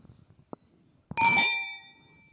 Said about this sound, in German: Also auf jeden Fall Riesling. Also wir haben jetzt Riesling. den Riesling. Aber also übrigens haben wir mal angestoßen mit einem Mikro und so.